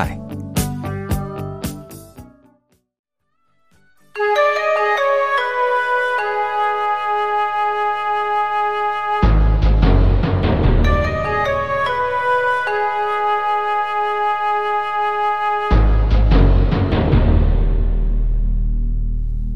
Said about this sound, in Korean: 음악 한 곡 듣겠습니다.